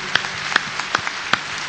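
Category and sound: crowd, audience applause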